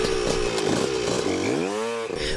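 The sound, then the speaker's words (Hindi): A small scooter engine buzzes loudly, then revs up with a rising whine as it pulls away, the rider heading home. No one speaks. “दिलीप नहीं रुका और स्कूटर स्टार्ट करके घर को चल दिया”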